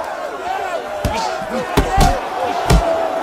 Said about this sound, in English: And then you have to deal with dynamics too, like punches are like guns. It's a sharp little transient. And then it kind of goes away.